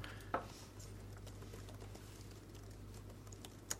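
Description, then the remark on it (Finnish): Soft, scattered clicks of typing on computer keyboards while searching on Google, faint and irregular over a low steady hum, with a couple of slightly sharper taps standing out. “Te kuulette vaan näppäimistöjen äänen.”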